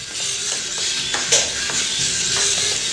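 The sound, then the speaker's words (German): Robot servo motors hum with a steady, hissy whir and a faint tonal drone, broken by a few soft clicks and ticks as they shift, while the robot runs a function and mobility test. No one speaks. “Die summen auch noch etwas die Servos, aber.”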